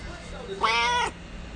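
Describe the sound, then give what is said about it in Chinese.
A domestic cat gives a single clear meow lasting about half a second, rising then falling in pitch with a bright, harmonic tone over a quiet background. “哇，猫咪，哇，Hello，哇，他现在是。”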